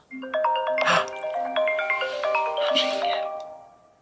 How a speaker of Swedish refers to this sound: Här ringer jag alltså upp, men med avstängd kamera.